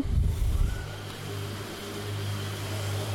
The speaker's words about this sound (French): Hum, on va laisser passer le scooter